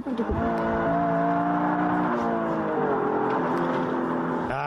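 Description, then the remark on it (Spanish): A Nissan Micra, a small Japanese car, drones loudly and steadily for a few seconds as it drives, its buzzy engine pitch dipping and rising, with a brief break in the sound near the start and end. “Es un coche pequeñito de origen japonés y tiene su origen en la deportividad de esa marca japonesa.”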